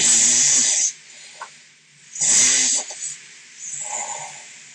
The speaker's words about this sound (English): So it goes like all different snores. Oh, that's another one. Here it comes.